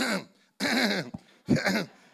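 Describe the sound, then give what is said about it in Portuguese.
A person mimics an elderly man waking up during a church service, producing three loud, voiced throat-clearing bursts in quick succession, with a brief pause after the first and no other speech. “Como aqui ninguém vai adormecer e ninguém vai tossir”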